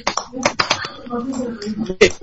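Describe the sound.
A few scattered, uneven handclaps ring out sharply while voices keep talking over them, a brief, sparse burst of applause rather than a sustained ovation.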